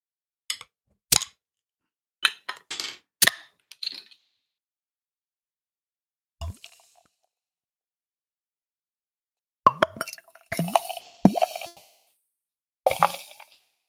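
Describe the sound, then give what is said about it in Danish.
Wheat beer is poured from a bottle into a glass, all the way to the bottom of the bottle: a few sharp clicks and clinks, a pause, then bursts of gurgling, glugging liquid with a fizzy hiss. No one speaks. “men her der skænkede jeg helt til bunden af flasken, fordi vi har jo fat i en hvedeøl.”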